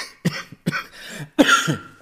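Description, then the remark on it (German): Three harsh coughs in quick succession, the last one louder and longer with a raspy tail, with no talking over them. “Jetzt fehlt wieder die Huste. Unterdrücktaste.”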